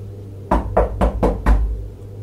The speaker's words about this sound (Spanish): Alguien tocó a la puerta y el perro lanzó un chillido.